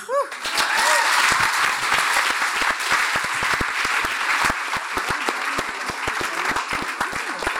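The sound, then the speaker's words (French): Loud, sustained applause from a large audience at the 2020 Prix Sommer award presentation, dense claps continuing steadily for several seconds, with faint murmurs and cheers mixed in. “attendez quand même que vous avez fait un tonnerre d'applaudissements avant même que je prononce son nom.”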